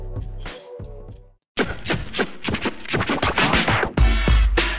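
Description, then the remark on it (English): A punchy hip-hop theme song produced in the style of a producer in 1985, with a heavy kick-driven beat, brief pause, then dense rhythmic record scratching cutting in loudly over the beat, ending on a booming bass hit. “I should also say that Kenny produced our theme song, the one you're about to hear, as if he were … in 1985.”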